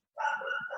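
A single drawn-out dog bark rings out, loud and slightly whiny, with no talking around it.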